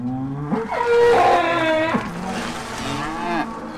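Cows mooing, a couple of long, drawn-out low calls that rise and fall in pitch, overlapping slightly and filling the short clip with no talking.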